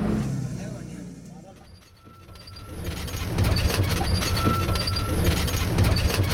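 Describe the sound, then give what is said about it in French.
Steady, loud rumble of a local bus in motion on a 220 km trip through the hills after leaving the Terai plain in Nepal, heard from inside, with rattling, road noise and a brief dip before the engine roar builds again; faint voices murmur underneath. “220 bornes en bus local, c'est bon pour lombaire et cervical”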